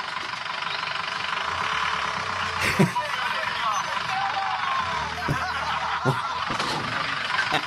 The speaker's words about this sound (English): white transit van comes up Listen to this.